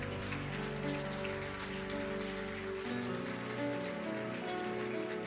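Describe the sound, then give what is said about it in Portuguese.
A large crowd applauds loudly and steadily, a dense, even wash of clapping that holds for several seconds over sustained instrumental tones underneath. The applause is given to the Lord during a Portuguese-language sermon. “Então dê um aplauso bem forte ao Senhor.”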